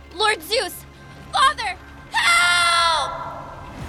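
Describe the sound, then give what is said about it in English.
A young woman, as Persephone being carried off by Hades on his chariot, screams and cries: four short, choked sobbing cries in two pairs, then a long, loud, high-pitched wail that trails off, clear with no talking. “As the horses reared to plunge back into the earth, Persephone finally found her voice to scream.”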